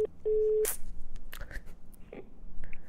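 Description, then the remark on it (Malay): A plain telephone ringback tone: a short, steady low-pitched buzz near the start, followed by clicks and faint line noise over an otherwise quiet call connection. “Okay dapat dapat Tak ada caller ringtone lah eh?”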